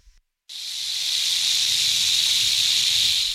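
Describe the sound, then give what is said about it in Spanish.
A rattlesnake's steady hissing, rattling buzz begins abruptly after a brief silence and holds loud and unbroken for about three seconds, with no voices. “Cuidado con la serpiente cascael!”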